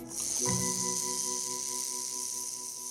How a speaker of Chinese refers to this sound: 只是不晓得为什么，前方一直传出了一阵“嘶嘶”的声音。